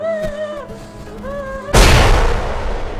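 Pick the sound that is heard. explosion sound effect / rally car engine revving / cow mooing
explosion sound effect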